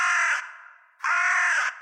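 Two loud, harsh crow caws, a short one followed after a brief pause by a longer, drawn-out call, with no other sounds around them.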